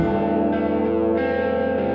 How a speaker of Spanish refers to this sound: Las campanas del infierno suenan y dan inicio a Pedimos Perdón.